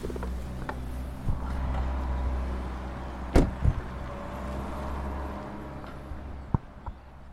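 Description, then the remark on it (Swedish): A steady, low roar of traffic on the E20 motorway in Sweden, about an hour south of Skara and 40 minutes from Gothenburg, fills the background without a break, with a few short, sharp knocks. No one speaks. “Ljudet du hör i bakgrunden är E20.”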